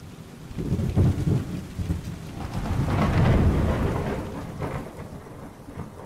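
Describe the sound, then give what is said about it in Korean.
Steady rain pours down continuously at night, with deep rolling thunder rumbling beneath it and swelling loudest midway before easing off. No voices are heard. “그날도 오늘처럼 비가 내리던 밤이었어.”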